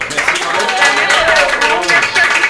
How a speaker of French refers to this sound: on vous remercie en tout cas d'avoir joué. On vous applaudit.